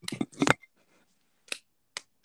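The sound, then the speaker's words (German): Felt-tip pen caps click open and shut: a quick cluster of sharp plastic snaps, then a pause and two more isolated clicks, crisp and fairly quiet. “Also, falls ihr mal so Stifte so schön so”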